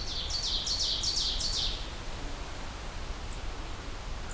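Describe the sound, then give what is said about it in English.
A quick run of about six short, high thwip-like calls from a black-throated green warbler, then a couple of faint ticks, over a steady hiss of outdoor background noise. “all those little thwip tick kind of calls come from the black-throated green warbler.”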